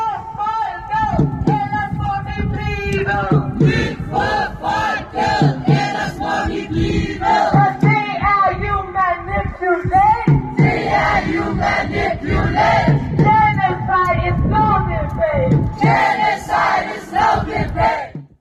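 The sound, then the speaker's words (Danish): A loud crowd of protesters with signs chants in unison outside a broadcaster's headquarters, accusing it of manipulating and lying in its coverage of the war in Gaza; rhythmic shouted phrases repeat over and over, voices blending into a dense, energetic roar. “Demonstranter med skilte, der anklagede DR for at manipulere og lyve i dækningen af krigen i Gaza”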